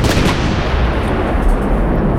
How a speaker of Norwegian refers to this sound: Du hører et skudd buldre fra mørket ved siden av deg.